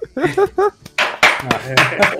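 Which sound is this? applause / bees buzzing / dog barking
applause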